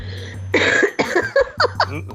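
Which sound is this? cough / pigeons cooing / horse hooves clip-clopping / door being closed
cough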